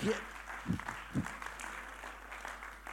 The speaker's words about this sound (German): Weil wir hier am Morgen, die Band war hier am Morgen, die Band, können wir denen mal einen riesen Applaus geben? Ihr macht so einen super Job hier, oder?